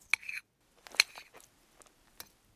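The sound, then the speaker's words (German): Macaroni in sauce, used as a model brain, squelching softly: a few short, wet, sticky squishes and faint clicks spaced irregularly, fairly quiet, with no voices. “wir wissen jetzt, wie Makaroni mit Soße schmatzen können”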